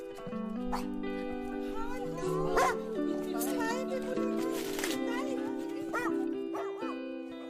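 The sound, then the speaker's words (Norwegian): Two small terriers, Pippi and Lille, whine and whimper almost continuously, breaking into a few sharp yapping barks now and then, with steady high-pitched vocalizing throughout. “de to små terrierne Pippi og Lille.”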